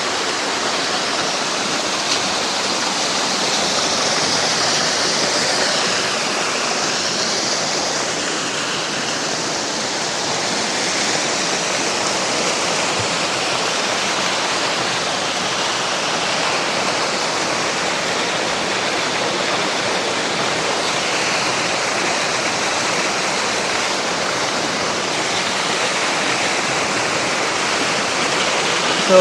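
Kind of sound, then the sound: nature, small waterfall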